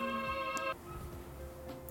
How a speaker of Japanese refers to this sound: あ今度は電話が入ったちょっと待ってください